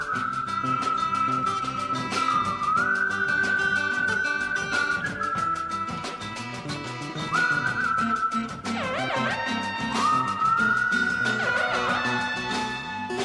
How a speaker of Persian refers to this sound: این ملودی که میشنوید توی های دیگه قطعه شنیده نمیشه و این ملودی صرفا برای بخش اینترو نوشته شده که با سوت نواخته میشه